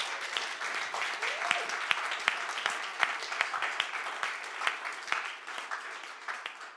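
An audience claps steadily for several seconds, a dense patter of many hands with sharp individual claps popping out, fairly close and moderately loud with no talking over it.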